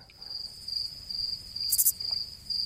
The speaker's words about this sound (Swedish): Krickor. Vad heter det? Quick, crickets. Mm. Kryckor heter det. Syrsor.